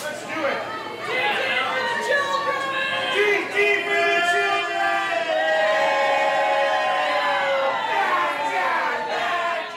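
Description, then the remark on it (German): A busy crowd at Pike Place Fish Market in Seattle, Washington, where fishmongers throw salmon five to seven metres across the counter to the scale, fills the air with loud, overlapping voices and shouted calls, a steady dense roar of chatter with a few raised, sing-song cries rising above it throughout. “Hin und her fliegen die Lachse. Fünf, sechs, sieben Meter durch die Luft. Von der Auslage quer über den Tresen bis zur Waage.”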